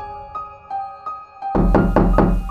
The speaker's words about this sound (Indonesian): Lagi-lagi seperti ada seseorang yang memainkan gagang pintu dan mencoba untuk membuka pintu kamarnya.